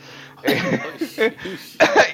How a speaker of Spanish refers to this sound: ay, eh, qué tos.